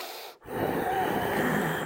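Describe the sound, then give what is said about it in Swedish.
A person forcefully snorts air out through the nose in a long, rough, noisy burst, imitating a snorting bull; the breathy sound is fairly loud after a brief pause. “Om man, är lite, om man är en frustande tjur, då ska man göra sådär.”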